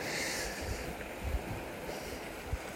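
Sea waves at high tide, a spring tide with a tidal coefficient of 100, wash steadily in a continuous roar, with a low wind rumble and a few soft thuds of water breaking. No voices are heard.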